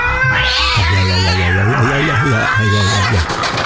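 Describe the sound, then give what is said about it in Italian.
A cat yowls and caterwauls in drawn-out, wavering cries, loud, rising and falling in pitch with a tense, defensive edge and no pauses. “che cercherà di resistere per almeno 14 ore con la pelle dello scroto incastrata tra le unghie di un gatto sulla difensiva.”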